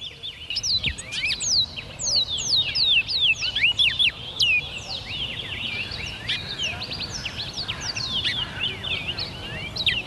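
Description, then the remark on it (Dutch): Many small caged songbirds, being hung up, chirp and trill rapidly at once, a dense, continuous chorus of high tweets, with faint crowd murmur underneath. “We worden nu uh vogeltjes opgehangen.”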